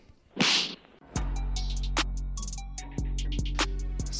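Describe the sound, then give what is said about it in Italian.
A swift whooshing swipe ends in a loud, sharp smack, followed by a droning low boom punctuated by several more crisp hits, like a cartoonish slap sound effect. “Schiaffone, schiaffone.”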